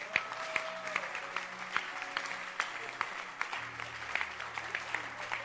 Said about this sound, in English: But clap your hands for Jesus.